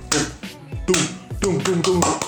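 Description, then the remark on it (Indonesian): Sharp, rhythmic claps in the style of Iceland's football supporters, starting spaced apart and then coming quicker and closer together, with a voice sounding underneath the hits. “selebrasi supporter Islandia juga ketika meraih kemenangan ataupun mereka isanya membakar semangatnya itu tuh mereka yang tepuk tangannya seperti habis itu tepuk tangannya itu ada ritmenya dan lama-lama tambah cepet”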